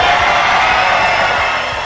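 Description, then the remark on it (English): A large crowd at a rally at Mar-a-Lago, as President Trump made his campaign official, cheers and applauds in a loud, continuous roar that holds steady and then eases off slightly toward the end, with no speech on top. “What a beautiful crowd, a beautiful night as uh, President Trump made it official.”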